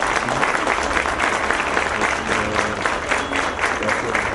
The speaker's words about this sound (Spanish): También les quiero pedir un aplauso para cada una de las dependencias que sin ellas no podríamos llevar a cabo esta feria. Gracias a todos por su presencia y ese aplauso también que sea para ustedes.